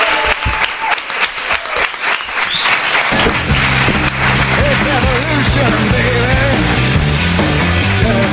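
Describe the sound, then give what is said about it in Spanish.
A loud, steady burst of audience applause bidding farewell to Goyo Jiménez, dense rapid clapping that keeps going as upbeat music swells in underneath partway through and carries on with it to the end. “Te despedimos con este fuerte aplauso a Goyo Jiménez.”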